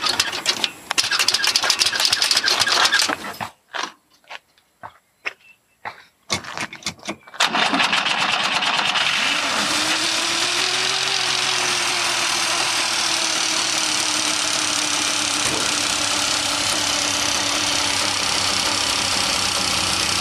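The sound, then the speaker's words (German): A Wartburg 311 two-stroke car engine sputters through a few choppy, stop-start bursts, then catches and settles into a loud, steady, rough idle that drones on with no talking. “Ja, so klang er, der Mercedes des Ostens. Unkultivierter Leerlauf, hä?”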